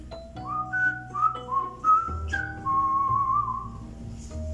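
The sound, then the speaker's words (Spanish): A light flute melody plays clearly up front, moving through a handful of sustained, gliding notes over a soft, steady low accompaniment, with no voices. “furioso por el incumplimiento, tocó otra bella y encantadora melodía una y otra vez.”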